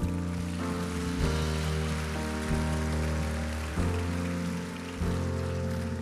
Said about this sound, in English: You can clap for that.